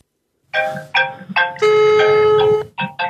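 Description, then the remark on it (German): A phone ringtone plays alone while a call waits to be picked up: a bright, electronic melody of short bursts and one longer held note, loud, with no one talking. “Hoffentlich geht er dran.”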